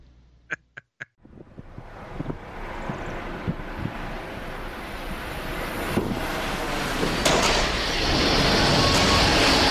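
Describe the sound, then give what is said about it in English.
A train wreck sound effect: three short, sharp horn-like blasts, then a loud, swelling roar of grinding, crashing noise that builds and stays intense until the end, with no talking. “We're gonna pause for for one second here, and here comes the train wreck.”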